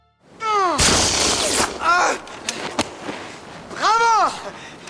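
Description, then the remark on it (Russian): A loud, sharp pistol gunshot, fired by Pushkin at Dantes after taking aim in their duel at dusk on 8 February, cracks out early and trails off in a rough roar, with a second faint snap later. Strained, rising-and-falling vocal cries sound before and after the shot. “Прицелившись, стреляет.”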